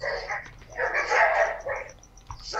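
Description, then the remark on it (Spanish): A group of village dogs barks and snarls as they fight one another in a tangled scuffle, overlapping yaps and growls surging in bursts over a couple of seconds, with no voices. “no, es que son los perros del pueblito que se andan agarrando unos contra otros.”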